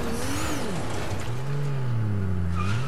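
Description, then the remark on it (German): A new car's engine in a video game hums steadily while tires squeal in long, wavering screeches as the vehicle drifts, loud, with a synthetic, game-like quality. “Driften, man kann driften.”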